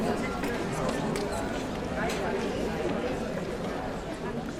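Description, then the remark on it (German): Constant murmur of an audience streaming into a hall that is already well filled, with only a few seats still free: many overlapping voices chattering at a steady level, with scattered footsteps and shuffling beneath, no single speaker standing out. “Das Publikum strömt in den Saal. Er ist schon gut gefüllt.”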